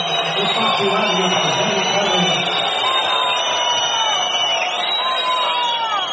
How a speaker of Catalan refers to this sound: Aquesta és la xiulada per Tyson, eh? déu nhi Sorprenent.